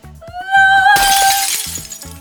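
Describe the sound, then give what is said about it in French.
An object-shattering sound effect: a loud shattering crash, like glass breaking, bursts in after a rising whistle-like tone and scatters into a noisy tail, all over a steady thumping musical beat. “Ici, l'oreille est assimilée à un objet qui se briserait à cause du bruit.”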